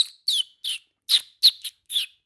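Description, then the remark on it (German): A person whistles a bird imitation: six short, high chirps in quick, slightly uneven succession, fairly clear, with no other sound. “Also, er kann auf alle Fälle tausend verschiedene Vögel.”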